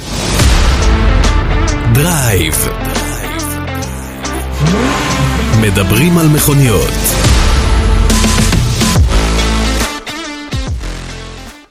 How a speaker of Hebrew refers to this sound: אבל בואו נניח לעניינים האלה ונחזור לדבר על מכוניות בעוד שלוש, שתיים, אחד, הנה הפתיח.